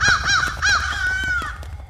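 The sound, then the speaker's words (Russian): Several harsh crow caws in quick succession, loud, the last one drawn out longer, with no one talking. “Рана раскрылась, и во все стороны из моего чрева полетели вороны.”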